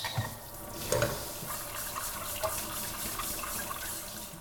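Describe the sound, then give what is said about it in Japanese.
Steady running tap water splashes into a sink while dishes are washed after cooking, with occasional light clinks and clatters of crockery. No one speaks. “今回はその料理の後のね、えー、食器洗いの環境音をパックにしながら、ね、えー、食器洗いの洗剤のお話をしてみました。”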